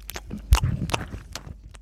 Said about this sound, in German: Einfach mal beim Schmatzen Mann, zu. Geschirr klappern, essen, schmatzen.